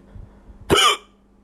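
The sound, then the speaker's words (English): A single short hiccup, a sharp voiced gulp that jumps out abruptly, with only quiet background before and after it. “something so involuntary about it, something so you know, it's sort of the polite vomit. It's like halfway between a burp and a vomit.”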